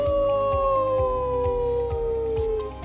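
wolf howling

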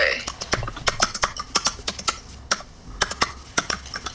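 computer keyboard typing

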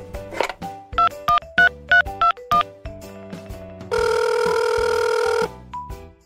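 telephone dialing and ringing

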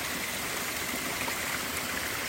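stream water flowing

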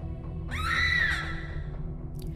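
loud human scream

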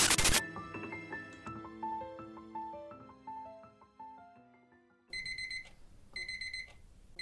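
mobile phone alarm ringing

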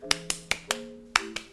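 hands clapping

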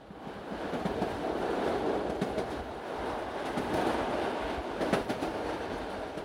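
train running on rails

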